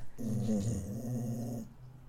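A black dog lets out a low, steady rumbling growl lasting about a second and a half, fairly loud, with no talking over it.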